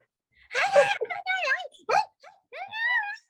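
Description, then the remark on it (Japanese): A person vocally imitates how their dog barks when left home alone, giving a few sharp bark-like yelps followed by rising, wavering howls and whines, fairly loud with short pauses between bursts. “こんな感じでずっと5分ぐらい吠えるんですね。”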